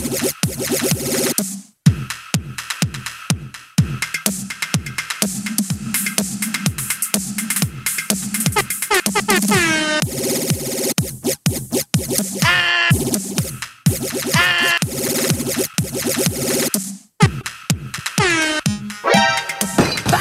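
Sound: air horn blasts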